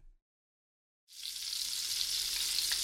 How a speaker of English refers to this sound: That, my friend, is the unmistakable sound of sizzling bacon.